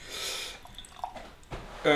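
Imperial stout beer is poured from a can, a soft hissing gush followed by light glugs and drips, ending with a brief louder splash.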